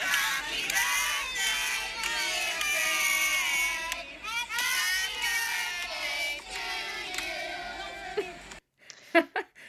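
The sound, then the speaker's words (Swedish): A noisy crowd of children at a birthday party on a Saturday morning, many high-pitched voices chattering and shrieking over each other continuously, then cutting off abruptly near the end before a couple of brief knocks. “Var det inte i lördags förmiddag, vår tid, som ni hade barnkalas?”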